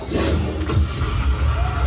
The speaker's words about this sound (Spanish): Todo el mundo aplaude, así que nada, hay que disfrutar.